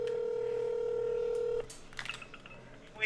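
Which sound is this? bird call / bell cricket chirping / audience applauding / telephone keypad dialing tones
telephone keypad dialing tones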